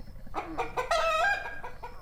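A chicken clucks, a few short clucks leading into a louder, drawn-out squawking call in the middle, then tapering off into softer clucks.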